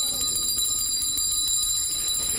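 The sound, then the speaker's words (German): A bell rings continuously and loudly for the whole stretch, signalling the end of a story, a bright, shrill metallic tone with a rapid rattling pulse and no voices over it. “Und sie freuten sich so lange, bis die Glocke ertönte und die Geschichte für beendet erklärte.”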